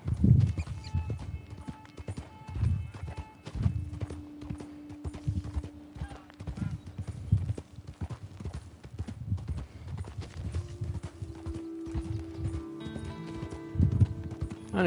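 Steady clip-clop of horse hooves in a video game, a rhythmic trotting beat under a tonal music or ambience bed, with a man talking over it at times.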